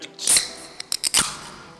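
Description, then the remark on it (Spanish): A can being opened: a sharp crack with a bright fizzing hiss, a few quick metallic clicks, then a second hissing burst that fades out. No one speaks. “Alguien abre una lata para cambiar el tema.”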